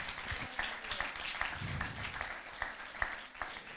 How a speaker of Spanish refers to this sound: Alguien dice, gracias Señor. Alguien le da un aplauso al Señor Jesús.